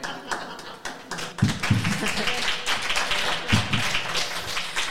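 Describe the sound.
A group applauds, with dense, irregular clapping that runs for several seconds at a fairly loud level, while voices and some chatter carry on underneath.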